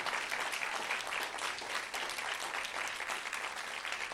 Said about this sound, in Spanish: Y si van a aplaudir, aplaudan.